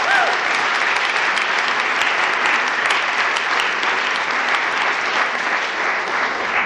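An audience claps steadily for several seconds for a choir made up of Southampton University's Chamber Choir, members of the Highfield Choir and local volunteers. A dense, even wash of applause holds at a constant loud level without pausing, with no voices standing out.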